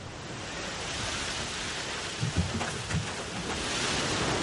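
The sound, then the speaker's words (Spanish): Gentle waves wash onto a beach during the day in a steady, soft hiss of surf, with a few low muffled thumps from breaking water partway through; no voices. “De día las olas rompen suavemente en la playa.”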